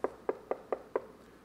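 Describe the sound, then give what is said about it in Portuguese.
Five evenly spaced knocks on a door by a father waking his oversleeping son on a Sunday, sharp, followed by a brief quiet pause with no voices. “Depois de bastante tempo, ele dormiu demais e num domingo, e ele estava dormindo, pegou no sono mesmo, de verdade, e perdeu a hora, bateu na porta.”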